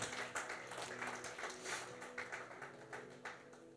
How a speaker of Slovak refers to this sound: Boh je dobrý a Boh je verný. On si zaslúži potlesk.